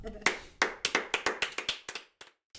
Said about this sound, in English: Clap it out.